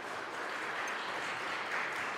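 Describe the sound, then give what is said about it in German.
A steady burst of applause from many hands, a dense, even patter of clapping that holds at a constant moderate level for a couple of seconds with no voices. “Und dann kannst du auch zum Beispiel sagen, ich brauche ein Klatschgeräusch.”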